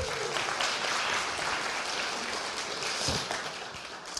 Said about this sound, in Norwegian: Han har løpt maraton i går. Fantastisk. Det er en klapp til deg, altså.